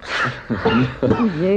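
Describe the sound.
A sharp, breathy sneeze bursts out at the start, followed by a couple of short voiced sounds, like someone snickering or talking briefly afterward.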